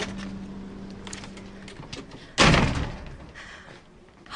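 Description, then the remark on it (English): A side door at the hospital of the Taji military complex is handled with some light rattling and clicks as someone goes through, then shuts with a single loud slam; a low hum runs underneath, and another sharp knock follows near the end. “And I'm just going to go through the side door here”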